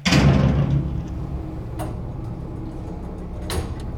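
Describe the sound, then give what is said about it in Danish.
The heavy stairwell door of an apartment building slams shut with a loud, booming thud that rings out in an echoey space, followed by a low lingering rumble and a couple of faint clicks. “Den tunge opgangsdør smækker hårdt i efter sig.”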